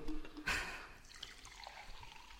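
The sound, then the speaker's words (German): Water splashes and trickles into a glass, a brief bright gush followed by a softer, uneven dribble. “Es gibt noch ein Glas. Noch Wasser.”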